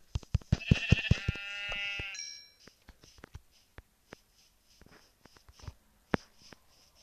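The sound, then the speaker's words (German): A sheep in a video game bleats once, a wavering harmonic baa lasting about two seconds, followed by scattered sharp clicks and taps with no talking. “Da hinten ist ein Schaf.”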